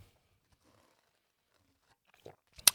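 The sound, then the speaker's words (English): Near silence, then a brief slurping sip of coffee near the end: a couple of small mouth sounds followed by one louder, airy slurp. “By the way, this this coffee sip is sponsored by”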